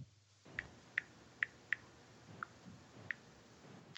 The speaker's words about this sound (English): the, the type, the, the, keyboard is slow typing, just making no sudden moves.